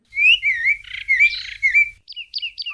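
A small bird chirps clear, a quick run of bright, warbling tweets followed by three short separate chirps, with a faint low rumble underneath.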